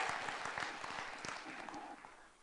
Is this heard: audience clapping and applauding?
yes